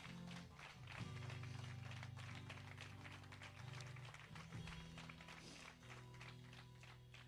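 A church audience at an afternoon service claps for the Lord steadily for several seconds, a dense, sustained wash of applause over held low keyboard or organ chords that shift pitch underneath.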